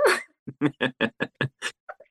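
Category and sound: animal, dog barking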